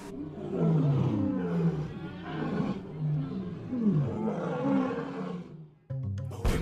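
lion roaring

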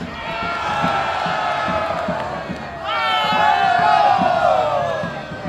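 crowd cheering

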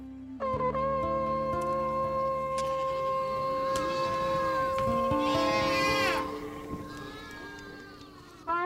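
goats bleating

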